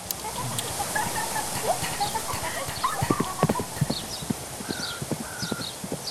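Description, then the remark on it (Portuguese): Horse hooves clip-clop in a steady, uneven rhythm in a rural landscape with waterfalls, with birds chirping lightly in the background and an occasional faint whinny. “Uma paisagem rural com cachoeiras, passarinhos, cavalos e centenas de gamers, competições, cosplay e muitos jogos, alguns ainda em fase de teste.”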